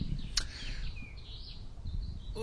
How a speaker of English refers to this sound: Listeners, you'll hear the birds in the background.